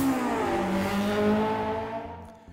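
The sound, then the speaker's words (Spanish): A car engine revs hard and accelerates during a test drive, its pitch rising in strong harmonic bands before easing off near the end. Loud, with no voices over it. “ese coche que se ve que afecta la rotación de la Tierra cada vez que arranca.”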